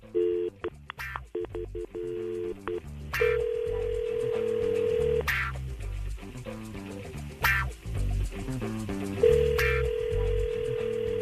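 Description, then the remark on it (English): A quick run of keypad dialing beeps, then an outgoing phone call to a mother ringing: two long, steady ring tones of about two seconds each, separated by a pause of several seconds. “All right, here we go. We're calling your mom up.”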